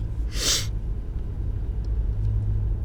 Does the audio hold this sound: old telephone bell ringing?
no